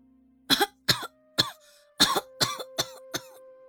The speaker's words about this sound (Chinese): 躺在床上的孩提突然咳嗽了起来。